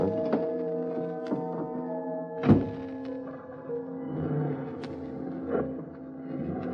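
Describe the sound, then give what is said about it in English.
A single solid thunk of a car door shutting, surrounded by soft shuffling and creaks of someone settling in, over a low steady engine hum. “I got into my car.”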